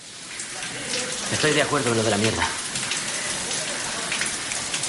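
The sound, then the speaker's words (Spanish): Steady, hissing spray of shower water runs throughout, a dense rush that never lets up, with a man's voice speaking briefly over it partway through. “En la ducha.”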